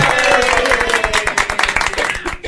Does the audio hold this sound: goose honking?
no